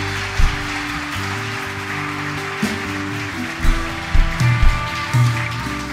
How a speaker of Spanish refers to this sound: Dale fuertes aplausos.